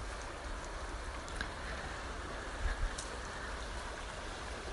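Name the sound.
river water flowing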